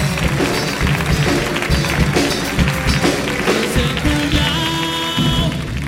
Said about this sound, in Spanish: Fuerte el aplauso para